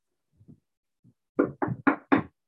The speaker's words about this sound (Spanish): Toca la puerta. ¿Pero por qué toca la puerta? Porque el pecado tiene un deseo.